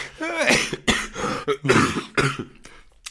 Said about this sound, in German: Oh Gott, Entschuldigung, da kriege ich Husten vom tiefen Lachen so früh am Morgen.